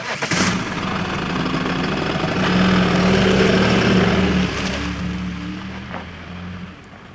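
The engine of a Ducato van runs steadily at idle before being tuned, a low, droning rumble with a slight rise in revs midway, with no one speaking.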